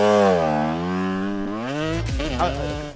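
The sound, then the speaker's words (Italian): A motorcycle engine revs loudly, its droning pitch climbing steadily before dropping off into a rougher, sputtering idle near the end. “ci sapevi che sono andato in moto, eh?”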